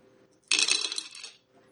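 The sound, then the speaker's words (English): Six dice clatter onto a hard table, a bright burst of rattling clicks that tumbles and fades over about a second, with no one talking. “Four successes out of six dice.”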